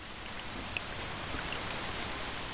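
Steady rain falls continuously in a forest, a dense hiss of countless drops with a few brighter individual patters standing out. The sound is soft and even throughout, with no voices.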